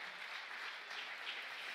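An audience applauds steadily, a dense, even wash of many hands clapping with a bright, crackling texture that holds at a moderate level throughout, with no voices over it.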